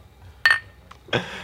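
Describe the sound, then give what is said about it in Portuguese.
Glasses clink together in a toast: two bright knocks about a second apart, the first with a brief ringing tone, against a quiet background with no talking. “Saúde pra nós.”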